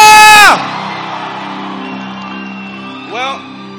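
A loud, high shout opens over the roar of a large church audience screaming and cheering in praise to the Lord, which carries on steadily in the background before another whooping cry rises briefly near the end.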